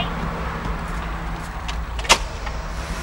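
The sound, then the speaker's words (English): A steady low elevator hum runs throughout, broken by a single sharp metallic clunk about two-thirds of the way in as the doors shut and the elevator goes up. No one speaks. “Doors closing. Elevator going up.”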